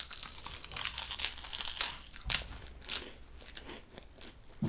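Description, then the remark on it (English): Someone bites into crunchy toast and keeps chewing, giving a steady run of crisp, crackling crunches with a few sharper snaps, moderately loud with no talking. “let's take a bite of our our toast.”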